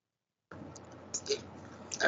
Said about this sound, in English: Whoa, we are we've got a typing ASMR podcast going on.